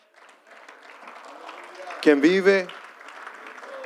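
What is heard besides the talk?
audience applauding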